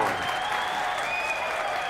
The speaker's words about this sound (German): Im Kontrollraum brandet Jubel auf.